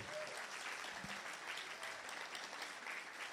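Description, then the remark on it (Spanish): A church audience applauds Jesus steadily, dense overlapping claps forming a continuous crackling wash that holds at an even, fairly loud level throughout, with no speech over it. “Den un aplauso a Jesús, claro que sí.”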